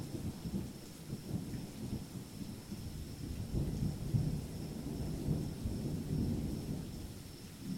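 Deep, continuous rolling thunder rumbles throughout, layered over the steady hiss of heavy torrential rain at a rest house in the middle of a remote forest. No voices, just the storm at a moderate, fairly even level.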